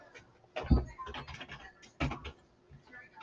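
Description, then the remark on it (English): Irregular clicks and taps from a computer keyboard, moderately quiet, with a couple of louder knocks among the quick keystrokes and no voices. “I have like a keyboard, so if you guys hear me like typing on it, tell me that I'm looking at security.”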